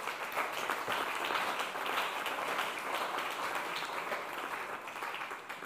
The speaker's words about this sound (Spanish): Dele pues un aplauso al Señor por eso.